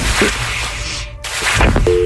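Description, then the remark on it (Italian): A thin, steady old-fashioned telephone tone hums faintly through a rough, noisy background as a man makes a brief call for help to his girlfriend, then a louder, clearer ring tone cuts in briefly at the very end. “Infatti fa in tempo a fare una breve chiamata in cerca di aiuto alla propria fidanzata, ignara di ciò che stava succedendo.”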